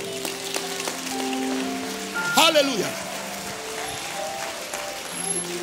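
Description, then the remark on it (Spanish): An audience claps steadily, giving applause to Jesus after praying the Lord's Prayer, in a dense, crackling wash of applause that fills the whole clip, with a man's voice calling out loudly midway and soft held keyboard notes underneath. “Denle un aplauso a Jesús por eso.”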